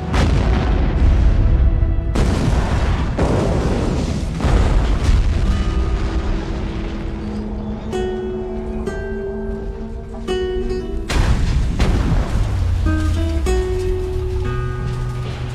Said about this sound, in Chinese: 在千钧一发之际，小白再次掏出了打火机，扔进了车后面的汽油桶，卡车爆炸